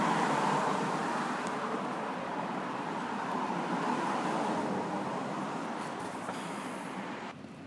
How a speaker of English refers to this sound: All right, I noticed a bunch of garbage trucks coming down the road, and they're they're noisy motherfuckers.